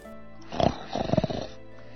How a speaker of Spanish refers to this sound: Una noche nevada, mientras el grúfalo dormía y roncaba, y roncaba